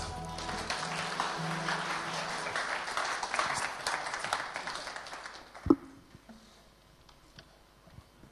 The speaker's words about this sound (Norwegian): Skal vi ta og gi dem en skikkelig applaus?